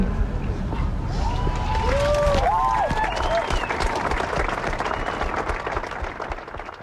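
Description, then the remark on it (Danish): A large street protest crowd, in a mix of sounds from protests in Iran and from the street in Copenhagen, roars and applauds in a dense, continuous wash of noise, with scattered shouts and a few high whistles rising above the steady cheering. “Det er Cthulhu, som der har lavet mixet af lydene fra Iran”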